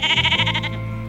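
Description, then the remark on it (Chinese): A sheep gives a single wavering bleat, its rapid pulsing tremolo lasting about half a second before settling into a steadier, fading tone. No one speaks. “所谓的农业社会，就是说家里不是种田种麦子，不然就是养鸡、养猪、养牛、养绵羊。”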